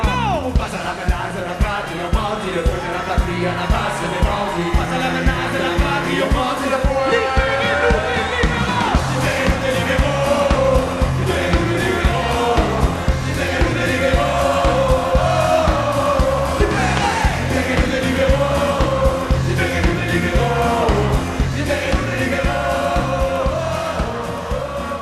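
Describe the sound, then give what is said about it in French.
A huge concert crowd sings and cheers together over a steady pounding beat, a dense, loud wall of voices that holds without pause from start to finish. “Puis là, tu le sais, c'est quoi un vrai 25 000?”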